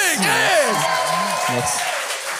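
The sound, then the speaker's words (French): An audience at a show applauds a participant who succeeded three times, with a dense, even wash of clapping, while voices call out and cheer over it with rising and falling tones. “on veut l'applaudir!”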